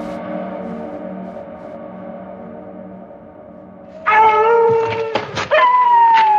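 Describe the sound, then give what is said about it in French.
Wolves howl in long, sustained wavering tones, a low chorus at first, then louder, higher voices sliding in and overlapping from the middle onward, with no talking. “Qu'est-ce que c'est Eh ben, c'est des loups.”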